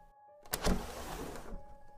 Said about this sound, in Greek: Είναι αυτό. Ναι. Αυτό είναι το διπλανό παράθυρο. Εμείς είχαμε κλειστό το δικό μας παράθυρο, οπότε δεν υπήρχε αμφιβολία ότι αυτός ο ήχος ήταν το παράθυρο που ανοιγόκλεινε στο δωμάτιο 733.